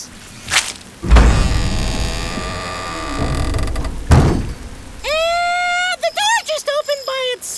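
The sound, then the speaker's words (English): A storm surges in around an old opera house with a heavy thud, a dense wash of rain and rumble for a few seconds, then another thump, followed by wavering, high-pitched creaking squeals. “Spooky old place in the middle of a storm.”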